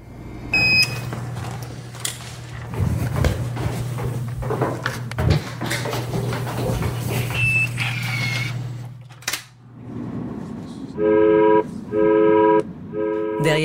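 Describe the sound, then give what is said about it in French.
An alarm in a control room with a soft, almost childlike tone sounds twice in steady, even bursts, clear and prominent, following a stretch of rumbling mechanical background noise with a low hum. “la tonalité douce, presque enfantine de cette alarme, se cache une urgence.”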